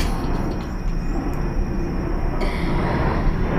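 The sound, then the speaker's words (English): An aeroplane roars steadily overhead, a loud, continuous low rumble that fills the whole recording with no voices and no pause in the drone. “ah, I hope the I don't know if you can hear the aeroplane let me wait for it”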